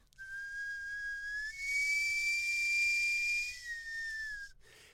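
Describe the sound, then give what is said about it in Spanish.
A person whistles a long, steady, piercing tone imitating a sweet-potato cart's steam whistle, rising slightly in pitch midway with a breathy hiss, held for about four seconds before cutting off. “¿Podrías hacer el de carro de camotes, por favor?”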